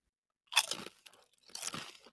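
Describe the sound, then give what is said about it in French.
Two loud crunches of someone biting into a crisp potato chip, not a Doritos, during a live test with an app switched off. Each crackling burst lasts about half a second with a short pause between them, and no talking. “Non, on entend croquer en masse, mon homme.”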